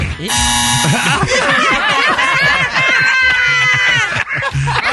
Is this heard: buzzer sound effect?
yes